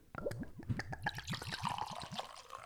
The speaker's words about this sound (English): I mean, Oh, um, there's, there's a glass for you. Jesus Christ, that is a pour. Wow. Oopsies. But I, I, I haven't even smelled it yet. Oh, but I, but I, It, it's such a huge. it pours way quicker because the mouth is enormous.